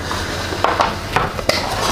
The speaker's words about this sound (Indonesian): Oke, saya mengambil gelas.